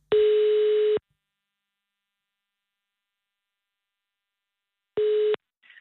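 A telephone ringback tone heard on an outgoing call to a man: two steady, buzzy one-second beeps separated by a long silence, clear, with no one speaking.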